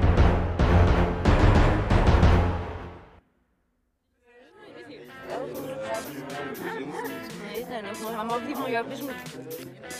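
A wolf on a snowy path barks in a rapid, loud burst of several calls, falls silent for a moment, then whimpers and whines in a steady stream of high, wavering cries.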